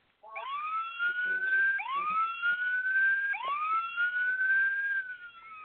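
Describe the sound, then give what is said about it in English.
A police siren sound effect wails in repeated rising sweeps, each tone climbing and holding before starting over, loud throughout with no talking. “Uh, here it is, and I'll let you know why the police horn sound effect.”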